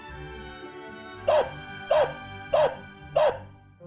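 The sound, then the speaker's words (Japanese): A dog barks four times in an even, steady rhythm, each bark short and fairly loud against a quiet background with a faint low hum. “The dog barked four times.”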